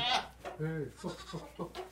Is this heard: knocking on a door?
no